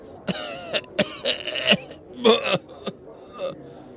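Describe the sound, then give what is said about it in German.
A series of harsh coughs in irregular bursts, some short and sharp, others drawn out and rasping, with brief pauses between them and no talking. “Pustest zwischen deinen Händen hindurch und fängst an, unheimlich zu husten.”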